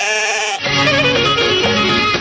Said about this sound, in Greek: Αυτά είπαμε είναι τα πρόβατά